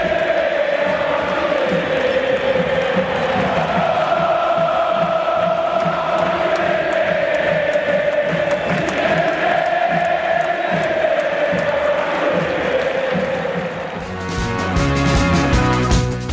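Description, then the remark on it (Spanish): A massive stadium crowd of River Plate football fans sings a sustained, rhythmic chant in unison, loud and enveloping, with drums or clapping pulsing underneath; near the end it shifts into a louder burst of noise. “Sin embargo, vamos a enfocarnos en los equipos alrededor del mundo. En este caso, River Plate. Y esto suena así.”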